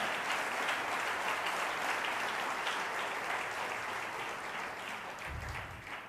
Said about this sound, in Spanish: Un aplauso a ese Dios de amor tan grande que tenemos. Amén.